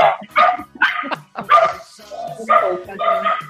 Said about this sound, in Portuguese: Essa é a minha cachorrinha que ela pira com a campainha.